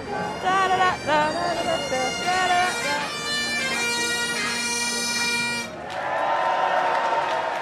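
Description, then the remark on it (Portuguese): A loud crowd at a protest calling for independence shouts and chants over steady blaring horn-like tones for several seconds, then the horns stop and a broad, noisy roar of voices carries on. “mas é na verdade um protesto e um grito pela independência.”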